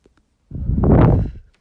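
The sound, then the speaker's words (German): A close, breathy drag on a cigarette, about a second long, with a soft crackling rustle swelling and fading right against the microphone. No one speaks. “Meinst du, so wie wenn ich meine Ziege ganz nah am Mikrofon ja, genau, rauche?”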